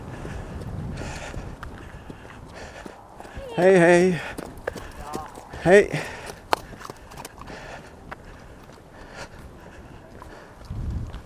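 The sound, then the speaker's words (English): Horse hooves clip-clop unevenly along a path on a windy day as the horses slow down, sharp knocks scattered through the scene, while a person calls out a couple of short greetings over outdoor background noise. “That uh, could be scary for a horse, I guess.”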